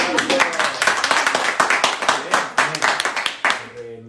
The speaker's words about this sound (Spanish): Bueno, number one, un aplauso.